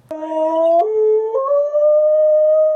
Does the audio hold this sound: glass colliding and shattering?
no